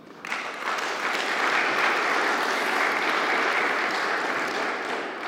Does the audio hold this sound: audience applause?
yes